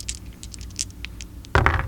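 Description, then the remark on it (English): Dice rolled in a friendly game rattle with a run of quick, light clicks, then land in a louder clatter near the end, coming up nine. No one speaks. “These ain't your funny dice, are they?”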